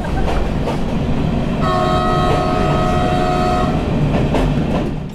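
moving train

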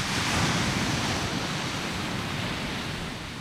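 sea waves

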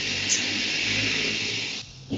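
toilet being flushed

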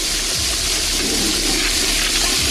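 toilet flushing

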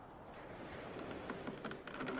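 ocean waves

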